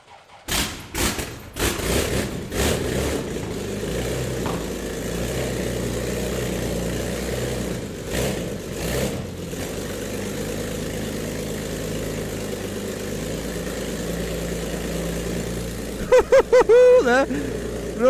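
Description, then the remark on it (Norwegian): A large 13.5-litre engine coughs and thumps to life in a few rough bursts, then settles into a loud, steady, rumbling idle that drones on. “Det er som et helvete. Omtrent som et 13-liters fly.”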